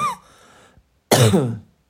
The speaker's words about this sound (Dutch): maar je gaat er zelfs van hoesten.